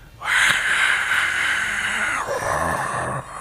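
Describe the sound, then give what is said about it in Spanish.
A voice imitates falling rain with one long, steady, breathy hiss that lasts about three seconds, changing slightly in tone near the end before stopping. “¿cómo le hace el- la lluvia cuando está lloviendo? A ver, hacerle. Le hace así, mira.”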